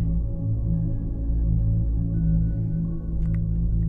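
A soft, sustained ambient music drone with steady low, warm tones that hold evenly throughout, playing alone without any voices or sharp sounds.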